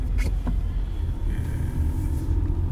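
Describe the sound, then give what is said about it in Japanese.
A steady low rumble of a car driving along a road, engine and tyre noise droning continuously and fairly loud throughout, with a few brief higher clicks near the start. “はいというところで、えー、進んでいきますって言ったって運転している人しかわからないんですけど”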